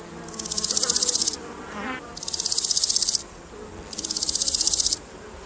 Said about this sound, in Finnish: Niityllä loikoilevaa hyönteisten lentelyä seuraava hyönteisharrastaja ei korvakuulolla helposti erota, mistä suunnasta hyönteisen ääni on peräisin.